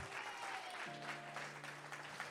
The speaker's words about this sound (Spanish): Eso merece un mejor aplauso al Señor. Eso merece que el gozo vuelva a tu corazón en esta tarde.